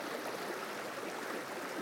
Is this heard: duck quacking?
no